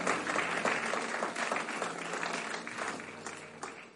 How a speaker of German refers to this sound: Let's, let's welcome Mommy with a mighty clap offering.